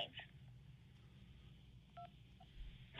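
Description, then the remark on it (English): A single short telephone keypad tone beeps once, clear, over a low background hum with faint muffled noise around it. “If you need pep talk from kindergarteners, press 3.”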